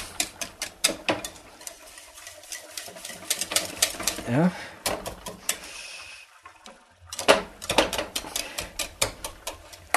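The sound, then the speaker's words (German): Potatoes being mashed finely: quick, repeated thumping and squishing strokes in two busy bursts, with a brief pause in between where a voice speaks a little. “Dann einfach schön Kartoffeln, die müssen schön fein gestampft werden.”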